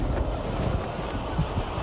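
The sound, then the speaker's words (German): A steady roar of rushing wind, heavy in the low end, with slight irregular buffeting and flutter as loose seatbelts flap in the wind beside empty seats on a three-seat bench spinning downward. No voices are heard. “Lose Sicherheitsgurte flattern im Wind.”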